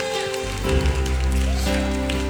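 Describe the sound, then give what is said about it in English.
An audience gives God a round of applause during worship, clapping steadily and loudly, a dense crackling wash of applause over sustained low musical tones that swell slightly after the first half second. “Let's give a big round of applause right now to God.”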